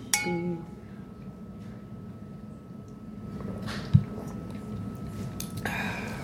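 A light clink of glasses in a toast rings out at the start, leaving a faint ringing tone, followed by quiet, muffled background and a single soft knock partway through.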